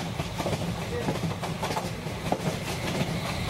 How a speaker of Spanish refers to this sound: ¿Escuchan? Es el tren de medianoche. Su sonido disgusta a algunos, a otros los asusta, pero a mí me parece relajante.